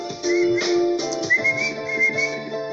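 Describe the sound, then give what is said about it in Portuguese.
A person whistles a bird-like call imitating a great kiskadee: a few steady, bright tones followed by a rising, wavering phrase, fairly loud and with no talking over it. “Olhou para um lado, viu outro ave lá, outro pássaro lá, outro pássaro, um bem-te-vi, falou.”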